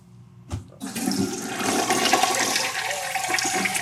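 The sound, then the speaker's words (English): A toilet flushes: a sharp click of the handle, then a loud, steady rush of water that surges and swirls for several seconds with no one speaking. “Flush y'all.”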